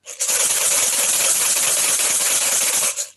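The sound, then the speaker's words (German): A coconut rattle on a stick, filled with many seeds (traditionally canna lily seeds), shaken steadily by a dancer for about three seconds, giving a loud, bright, continuous rushing hiss with a fine gritty texture, rising in at the start and tapering off at the end. “Und ich fasse jetzt als Tänzer diesen Stab an und versuche jetzt zu schütteln, weil in meiner Kokosnuss unten sind ganz viele Samen, traditionellerweise von der Kannerlilie. Und die machen dann ein rauschendes Geräusch.”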